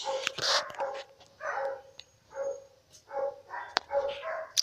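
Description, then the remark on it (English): A neighbour's dog barks repeatedly in an uneven series of sharp, slightly muffled barks, reacting to someone knocking at the door, with brief pauses between bursts and no one talking. “in my place we have a uh, neighbor has a dog and someone knocked at the door so the dog is reacting all right”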